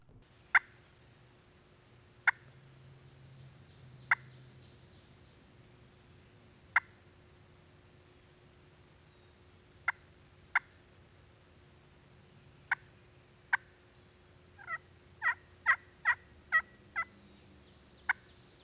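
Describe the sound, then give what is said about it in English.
Sharp, high yelps from a pot-and-peg turkey call, made by a hunter calling to a gobbling tom turkey, spaced out at first and then quickening into a tight run of about eight notes near the end, crisp with no voices. “So I pull out one of my pot and peg calls”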